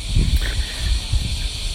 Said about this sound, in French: Euh, voilà, c'est dans chaque arbre après, en plein été, vous avez des millions et des millions et des millions de cigales qui s'en donnent à cœur joie.